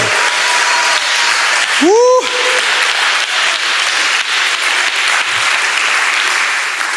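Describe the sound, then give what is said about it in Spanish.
Loud, sustained applause from a large crowd fills the space continuously, with a brief shout or cheer rising out of it near the start. “Ahora sí, dale un aplauso fuerte.”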